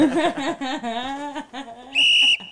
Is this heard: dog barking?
no